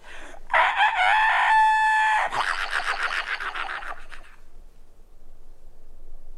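A rooster crows loudly in a long, wavering cock-a-doodle-doo, its bright harmonic call rising then holding, followed by a burst of rough, noisy squawking that fades out into quiet.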